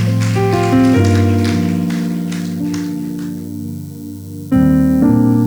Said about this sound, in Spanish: Damos un fuerte aplauso, así como está.